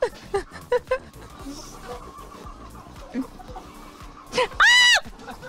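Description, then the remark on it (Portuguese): Chickens on a farm cluck in short, scattered bursts, then one lets out a loud, drawn-out squawk near the end over a low background murmur. “Onde é que tem um monte de galinha se exibindo e não é reality show?”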